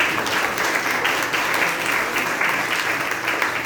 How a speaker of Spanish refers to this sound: Por favor, también un aplauso para ella.